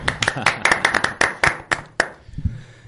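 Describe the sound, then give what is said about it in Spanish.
A short round of applause: a dozen or so sharp, fairly loud hand claps in a quick, steady rhythm for about two seconds, then stopping as a brief low voice murmurs. “Y un aplauso. Un aplauso.”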